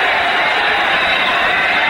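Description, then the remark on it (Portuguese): A large crowd of Angra dos Reis fans at a basketball game roars and chants 'é campeão' in unison, a dense, steady wall of voices that stays loud and unbroken for the whole two seconds. “A torcida de Angra dos Reis começa a gritar: é campeão, é campeão.”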